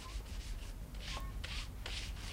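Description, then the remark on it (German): Brisk scrubbing strokes as Mrs. Ogmore Pritchard scrubs the steps in front of her front door, a rough bristly swishing repeated in quick bursts, roughly five or six strokes over a couple of seconds over a low background rumble; no voices. “Sie schrubbt die Treppe vor ihrer Haustür eisglatt.”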